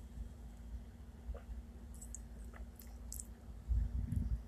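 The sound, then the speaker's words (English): A quiet sip of cold tea, with faint wet mouth clicks followed by a soft low gulp near the end, against a steady low background hum and no talking. “Um, I will go ahead and take a sip and try to describe it for you guys.”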